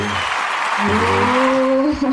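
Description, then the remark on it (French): A crowd applauds steadily and densely for about two seconds on the Radio Fenouille show, with a voice calling out over the clapping partway through. “Vous n'avez pas besoin d'applaudir, hein.”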